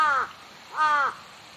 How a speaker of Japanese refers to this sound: 今僕の真横にカラスがいます怖いなカラス